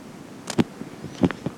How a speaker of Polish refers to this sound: Na samym początku jest nagrany trochę szum, dlatego że nie włączyłem mikrofonu.